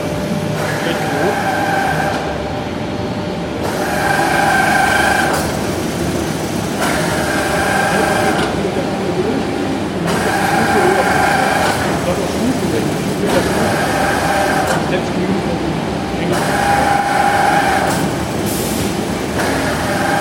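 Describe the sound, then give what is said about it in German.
A sewage plant step screen, an automatic rake in a pit, started by hand, runs steadily, conveying material up step by step. Its mechanical grinding and rumble rise and fall in a regular cycle about every two and a half seconds, with whining tonal notes on each lifting stroke. “Und das überbrücke ich jetzt quasi über Hand und jetzt läuft der Deckel mal los. Jetzt sieht man, wie er das Treppe für Treppe hochfördert.”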